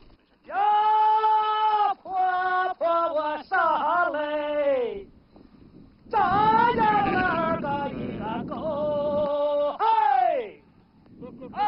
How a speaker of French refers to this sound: À son pied se trouve un troupeau de moutons grignotant dans les pâturages clairsemés ainsi que de curieux sons.